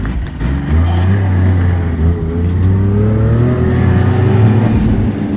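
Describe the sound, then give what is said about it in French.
A snowmobile engine revs loud, its pitch rising and wavering steadily as the machine, carrying two riders, pulls away and keeps driving straight up a ski slope at a ski resort, with no talking over it. “on est sur la, motoneige, je suis derrière Ludovic, le directeur de la station”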